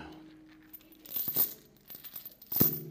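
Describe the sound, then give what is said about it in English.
Metal chains being shackled onto someone's feet and hands rattle and clink, with a few sharp metallic clanks and a brief ringing tone, ending in one louder clatter. No voices. “That's the sound of chains being shackled to someone's feet, someone's hands.”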